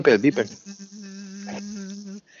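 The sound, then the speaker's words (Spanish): After a brief burst of speech, a voice hums a steady, low buzzing drone for about a second and a half, imitating the vibrating sound of a vibrator heard while cleaning a room, moderately loud. “Una, una, un sonido ah, de vibración.”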